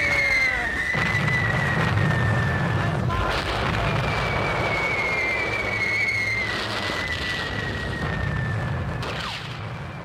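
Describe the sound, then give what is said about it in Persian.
War sounds of bombing within a song: a loud, continuous rumble of booms and blasts, with a long high whistle slowly falling in pitch, all mixed into the song's rhythmic musical backing. “بعدتر این ترانه میگوید اگر لازم باشد از توپ و بمب و هر چیزی که لازم باشد استفاده کنید تا مرا از اینجا بیرون ببرید و بعد صدای بمباران و جنگ در لابلای ریتم موسیقی شنیده می شود.”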